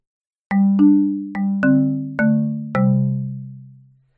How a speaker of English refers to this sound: Our intro and outro music was created by Lee Rosevere and is used under a Creative Commons by attribution license.